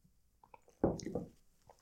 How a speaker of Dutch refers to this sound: Ik neem even een slokje water voor tussendoor.